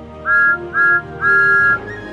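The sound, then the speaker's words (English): The whistle of Thomas the Tank Engine, a little blue steam engine, toots three times, two short blasts followed by a longer one, loud with a breathy hiss around the clear tone and no voices. “He is the number one engine on Sir Topham Hatt's railway and has a whistle that sounds like this.”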